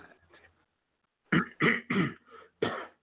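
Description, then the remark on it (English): Soft, low throat-clearing rasps from a frog in the throat at first, then a brief pause before a run of four harsh, loud coughs in quick bursts, a quieter one tucked among them. No speech. “Hey, I have got a frog in my throat. Can't get rid of it. I am sorry.”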